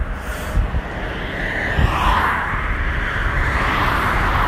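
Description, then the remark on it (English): Steady, loud road noise from inside a moving car: a constant low rumble with a broad hiss of tires and wind over it, and no voices. “You know, the I don't know, maybe the car noise is maybe too much sometimes.”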